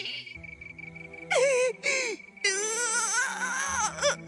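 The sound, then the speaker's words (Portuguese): Loud crying from frustration: a girl's voice breaks into drawn-out, wavering wails in several bursts after a brief quieter start, intense, with short gasping breaks between sobs. “Quem quer ficar chorando de tanta frustração?”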